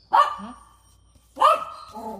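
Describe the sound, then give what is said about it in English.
A male pet dog barks twice, loud, with a pause of about a second between the sharp, harmonic barks and no talking over them. “That's my dog.”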